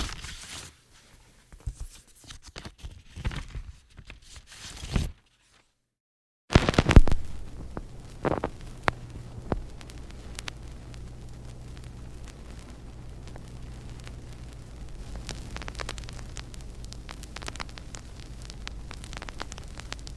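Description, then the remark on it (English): An early recording of a song played from a vinyl record spins up with dense surface crackle and hiss, briefly drops to silence, then resumes crackling over a steady low hum, with the music itself barely discernible and no voices. “It's from the vinyl, so uh, just give me a moment.”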